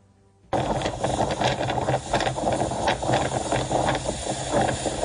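Strong winter storm winds of up to 120 km/h, recorded by a camera, roar in suddenly after a brief quiet moment, a loud, dense rushing that surges and gusts unevenly without letup. No one speaks.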